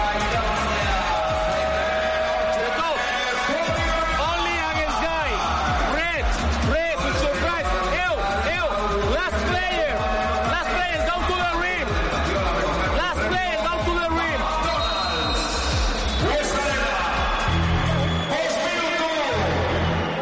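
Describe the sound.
The Penya Roya basketball supporters group cheers and shouts in a reverberant arena, with dense overlapping voices, whoops and yells rising and falling steadily throughout, loud.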